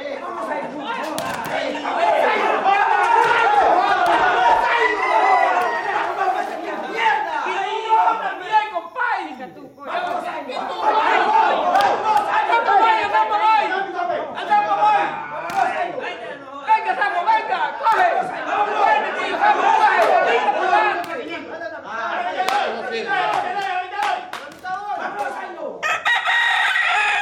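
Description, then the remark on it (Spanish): A loud, dense crowd shouts and clamors nonstop at a cockfight in the Gran Sabana of southeastern Venezuela, with roosters crowing sharply through the din over nearly half a minute, the noise dipping only briefly before surging again. “Los hombres buscan el oro que gastarán más tarde en las peleas de gallos.”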